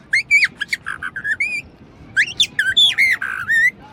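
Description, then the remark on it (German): A person whistles an imitation of a blackbird's song in two clear, warbling phrases of fluttering, sliding notes separated by a short pause, fairly loud over a soft background hiss. “Um fünf in der Früh pünktlich fängt die Amsel an.”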